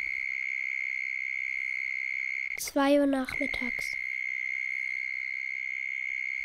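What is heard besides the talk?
cicadas chirping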